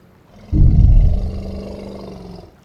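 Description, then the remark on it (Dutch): A single deep, loud roar from a passing elephant bursts in abruptly after a quiet start, rumbling heavily for about two seconds before fading away. No one speaks. “En toen kwam er een olifant voorbij de grond opschuddend, de aandacht opeisend, zich nooit of te nimmer te verexcuseren voor haar grootte, haar geluid of wie ze was.”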